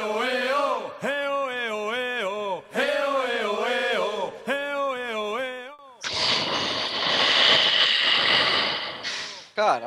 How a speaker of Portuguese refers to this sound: Não, eu bocejei, daí eu acho que o meu microfone tava muito perto, desculpa.